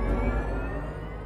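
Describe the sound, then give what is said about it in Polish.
A steady, synthesized engine tone from the BMW Vision M Next electric concept car hums continuously, with layered harmonic overtones and a deep low rumble, holding an even loudness throughout the short stretch with no one speaking. “Na razie udźwiękowienia doczekał się koncept samochodu BMW Vision M Next.”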